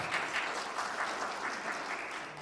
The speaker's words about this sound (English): For those of you who are gathered online, we're glad that we are, you were able to see me at least, but hear that there is some applause, there's some celebration here in the room that you could be here with us online.